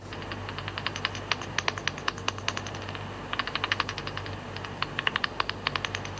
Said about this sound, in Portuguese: E agora, depois de ter colocado isso na frequência audível para humanos? Aquilo que é audível em tempo real, quando o morcego está a passar e está a navegar e a localizar-se, e que nós ouvimos, é isto.